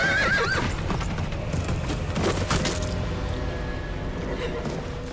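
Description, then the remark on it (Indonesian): A horse whinnies loudly at the start, followed by a steady, rapid clatter of hooves as a rider spurs it into a gallop to chase a thief, with no talking. “Tanpa pikir panjang, ia raih tali kekang kuda dan memacunya, mengejar si pencuri.”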